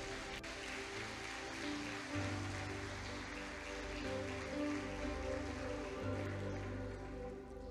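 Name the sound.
audience applause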